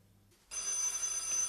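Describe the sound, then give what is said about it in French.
A telephone bell rings loudly and continuously, a bright metallic trill that starts abruptly after a brief quiet moment and holds steady to the end. “Vous répondez au téléphone”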